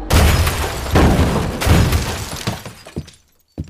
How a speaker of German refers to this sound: Als der Bus des BVB an der mit Bomben präparierten Hecke vorbeifährt, drückt er den Auslöser. Die drei Bomben detonieren.